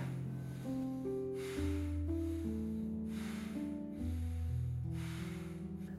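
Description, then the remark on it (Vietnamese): Forceful, rapid breaths in and out, 30 to 40 of them as the first step of a breathing exercise, repeat in a steady rhythm, each a loud airy rush, layered over a soft backdrop of sustained, gently shifting musical chords. “phương pháp thở này rất là đơn giản bao gồm có 3 bước bước đầu tiên bạn hãy hít vào và thở ra thật nhanh và thật mạnh từ 30 đến 40 cái”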